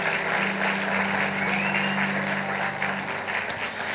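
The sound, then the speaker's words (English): An audience claps steadily for several seconds, a dense, even wash of many hands with no voices standing out, holding at a fairly loud level throughout. “Y'all clap for one more time.”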